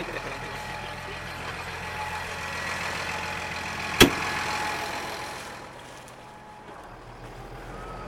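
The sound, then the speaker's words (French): A tractor engine rumbles steadily while plowing a field of roughly 5-6 hectares, a low droning hum with a sharp clank partway through, then the engine noise eases and grows quieter toward the end. “sur son tracteur continuer à labourer son champ qui doit bien faire, euh, je sais pas moi, 5-6 hectares.”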